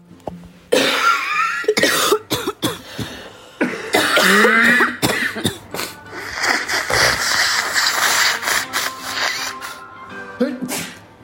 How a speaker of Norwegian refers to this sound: Med høsten kommer hosting på bussen og tomme pulter på kontoret.